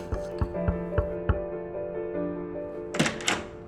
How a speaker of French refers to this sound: Elmire de Horry est à table lorsqu'on frappe à sa porte.